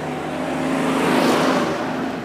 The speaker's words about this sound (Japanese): ちょっと今車が1台前から通ります。